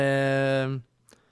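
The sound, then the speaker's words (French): A chair spring lets out one drawn-out, steady, loud creak that fades out after under a second, followed by a faint brief tap. “Encore le, spring, je j'ai pas.”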